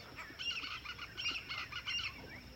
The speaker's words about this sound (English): Go away, birds. You can hear them.